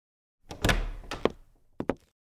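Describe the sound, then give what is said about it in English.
An apartment door closes with a solid, resonant thunk, followed by a brief rattle and then two quick, sharp clicks of the latch or lock. No voices are present. “Finch had barely made it through her apartment door when she got the text from Reza.”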